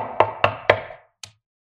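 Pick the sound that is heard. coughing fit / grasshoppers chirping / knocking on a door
knocking on a door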